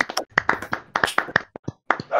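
A short burst of hand clapping, a dozen or so sharp, uneven claps in a loose rhythm, fairly loud and crisp, with no voices over it.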